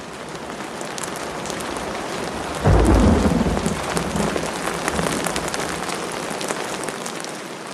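Heavy rain pours down in a steady, dense hiss throughout, with a deep rumble of thunder rolling in partway through before easing back under the downpour.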